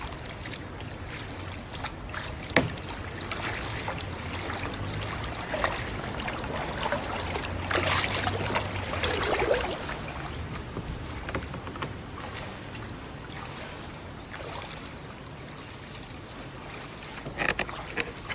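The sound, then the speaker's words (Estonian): A traditional wooden Spreewald boat (a Kahn, or canoe) glides along a river in the Spreewald. Water laps and trickles softly against the hull, with occasional knocks and splashes of a pole or paddle. Steady, no voices. “ehk kanuu on Spreevaldi traditsiooniline sõiduriist ning nii nagu vanasti, on ta ka täna peamine transpordivahend.”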